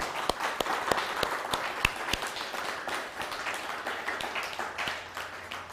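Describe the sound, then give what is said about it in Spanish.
An audience applauds to welcome a guest back home, a dense wash of many hands clapping with a few sharper individual claps standing out early on, then gradually thinning toward the end. No one speaks. “Fuerte aplauso.”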